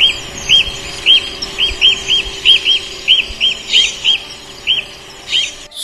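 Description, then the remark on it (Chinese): Magpies chirping in a steady series of about fifteen short, bright calls, evenly spaced and fairly loud, over a faint low hum with no talking. “喜鹊弟弟一齐快乐的回答。”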